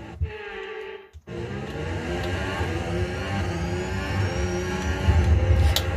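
A racing car engine revs hard in a video game, its pitch climbing steadily after a brief cutout near the start, loud and continuous with dense harmonic whine.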